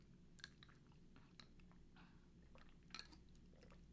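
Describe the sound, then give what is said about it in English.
Someone sips a thick iced mocha Frappuccino, a series of short, wet slurping and mouth clicks spread over a few seconds against a low background hum, with no talking. “Now, first, let me get a sip of this drink.”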